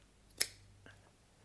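A single crisp metallic snip of scissors, followed by a couple of softer clicks as the blades close again. Fairly quiet, with no voices.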